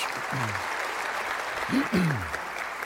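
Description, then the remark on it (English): Steady audience applause for the ushers, greeters and volunteers who performed in the show fills the whole stretch, a dense wash of clapping, with a couple of voices calling out briefly over it. “Can we just give them a round of applause?”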